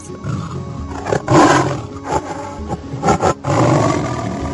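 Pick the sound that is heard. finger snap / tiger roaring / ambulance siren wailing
tiger roaring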